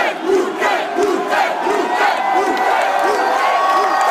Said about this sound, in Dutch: En dat was echt zo woe, Als je dat zo 2000 man hoort scanderen, dan is dat wel impressionant.